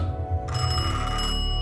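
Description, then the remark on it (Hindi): An antique telephone of the kind seen in black-and-white film days rings at night in a flat, a bright metallic jangle that starts softly and then swells into a loud, continuous ring with no voices. “अमित घूमा तो देखा उसका एंटीक फोन बज रहा था”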